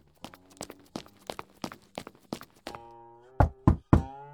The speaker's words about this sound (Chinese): 孙传庭早已吩咐过，在他读书的时候，任何人不得打扰。听到敲门声，他心中不悦，放下手中的邸报，皱着眉头进来。